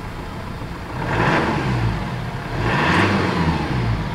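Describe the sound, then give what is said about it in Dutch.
A new diesel car engine is started and rumbles low and steady, then revs up twice in rising surges before settling back toward idle. No one speaks. “Kun je het geluid hoor? Ik sling hem aan voor je.”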